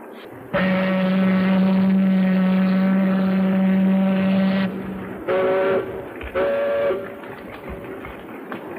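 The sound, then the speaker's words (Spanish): The horn of the ship carrying Carl Denham and his film crew sounds at departure for an uncharted island: one long, deep, steady blast lasting about four seconds, followed by two short blasts, loud over a constant low background rumble, with no talking. “Esa bocina es la del barco que lleva a Carl Denham y a su equipo de filmación rumbo a una isla que no figura en los mapas.”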